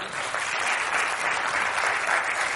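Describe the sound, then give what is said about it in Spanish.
An audience applauds steadily to vote that a coin is in a magician's hand: a dense, even wash of many hands clapping at once that holds at a fairly loud level for the whole stretch, with no voices over it. “Aquellos de ustedes que piensen en esta mano, por favor, que aplaudan ahora.”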